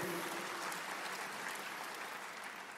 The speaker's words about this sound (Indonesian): Yang percaya katakan amin, amin, amin, amin. Tepuk tangan yang meriah bagi Tuhan kita.